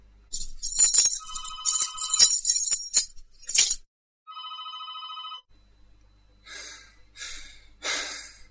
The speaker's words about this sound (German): Während sie hastig nach ihren Hausschlüsseln in ihrer Tasche kramte, klingelte in ihrer Wohnung das Telefon.